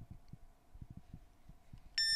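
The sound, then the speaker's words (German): A single bright electronic charging beep from a wireless power bank sounds suddenly near the end, loud, as an iPhone is laid centered on it, after a stretch of faint low thumps and handling noise. “So, er ist jetzt aktiv und ich gehe jetzt mit dem iPhone darüber und lege es jetzt exakt mittig drauf und dann müsste eigentlich ein Piepsignal kommen und wahrscheinlich wird uns VoiceOver irgendwas vorbrabbeln.”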